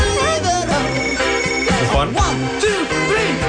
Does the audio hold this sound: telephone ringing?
yes